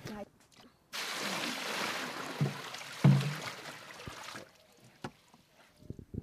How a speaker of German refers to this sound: ich muss Wasser wieder nachfüllen, Entschuldigung. Okay. Das ist wieder aus, aber jetzt muss ich es wirklich nachfüllen.